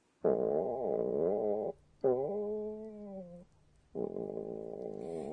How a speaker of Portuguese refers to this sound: É, desta vez não é o meu estômago. Em japonês, existe uma expressão usada quando o estômago ronca, como?